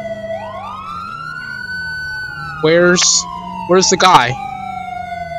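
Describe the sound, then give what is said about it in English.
A Los Santos police car siren in a video game wails steadily, its rising and sliding tones running under the whole stretch while a man speaks briefly over it midway. “That's what AI on Los Santos police car.”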